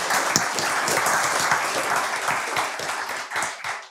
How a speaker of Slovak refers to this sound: Takže privítajte hosti. Potleskom, ďakujem pekne.